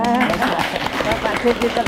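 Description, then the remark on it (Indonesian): Audience applause on the MCTV culture programme Limasan Ngerembuk Kabudayan: a steady patter of many hands clapping throughout, moderately loud, with a voice speaking over the clapping. “Yen lewat derek langkung, yen lepat nyuwun pangapunten tepuk tangan.”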